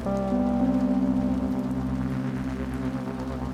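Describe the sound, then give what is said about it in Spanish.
Steady light drizzle patters on wet asphalt at nightfall, a soft continuous hiss with a low sustained hum underneath, even in level throughout with no voices. “Algunas luces de neón comenzaban a teñir el reflejo del asfalto húmedo por la llovizna.”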